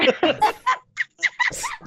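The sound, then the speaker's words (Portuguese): A person imitates a chicken clucking, producing a quick series of short, choppy voiced bursts with uneven rhythm, moderately loud. “Por Galo não põe Deus. ovo. Tua, tua imitação é. foi ruim, tu tentou.”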